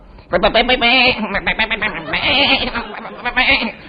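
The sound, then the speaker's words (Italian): A man's voice stammers loudly, its quavering, repeated syllables "be, be, be" sounding like a sheep's bleat as he tries to say "bella notizia", for about four seconds. “Avete buttato una pecora?”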